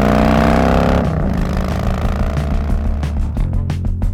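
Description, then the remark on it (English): A Harley-Davidson motorcycle engine, a recording lent by the Harley-Davidson Museum, revving loudly, a deep throbbing growl that drops in pitch after the first second, then breaks into choppy, rapid popping bursts toward the end. No one speaks. “Special thanks to the Harley Davidson Museum for lending us some engine noises.”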